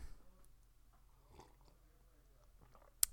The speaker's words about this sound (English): Okay, I need to take another sip of my coffee.